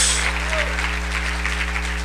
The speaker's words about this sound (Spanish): Démosle un buen aplauso al rey. Esta es la fiesta del rey.